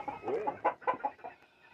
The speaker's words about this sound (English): Can you shoo that bird out of my? Um, shoo the bird out of there. Get out of there! Scram!